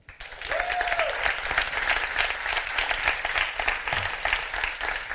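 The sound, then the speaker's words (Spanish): An audience at a Fuera de Series live show breaks into sustained applause, a dense wash of many hands clapping at a steady loudness for several seconds, with a brief whistle-like tone near the start. “Eso merece un gran aplauso.”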